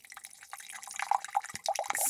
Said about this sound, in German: Und da kommt jetzt Essigessenz rein. Es geht aber auch mit anderem Essig. Einfach mal so halb voll machen.